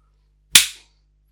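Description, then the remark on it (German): A single sharp hand clap rings out alone, crisp and fairly loud, with a quick bright snap that fades out in a fraction of a second. “Und jetzt klatschen, pass auf.”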